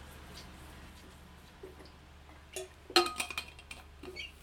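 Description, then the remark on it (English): Glass clinking as a person fetches water to drink: a sharp bright clink around the middle, then a few lighter taps and rattles over a low steady hum, with no talking. “and get some water. I'm very thirsty.”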